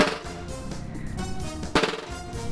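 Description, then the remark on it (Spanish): A snare drum roll played with both sticks rebounding, buzzing strokes producing a dense, rattling roll, fairly loud, with a couple of sharper accents and no voices. “¿y entonces cuáles son los toques básicos de la caja?”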